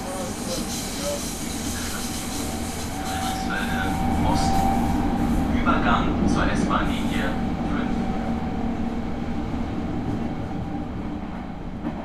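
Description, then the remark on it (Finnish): Steady, loud rumble and hiss inside a moving S-Bahn commuter train in Berlin, with a faint mechanical whine running throughout and indistinct voices briefly murmuring in the background midway. “S-junan kyydissä maisemat vaihtuvat karummiksi.”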